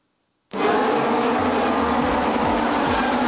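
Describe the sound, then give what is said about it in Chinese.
Formula One race car engines cut in abruptly with a deafening, high-pitched buzzing roar as the cars race past, holding steady for about three seconds, with no voices. “震耳欲聋的引擎声，呼啸而过的毫秒之争，不只考验机械的最高性能，车手也必须展现极致体能。”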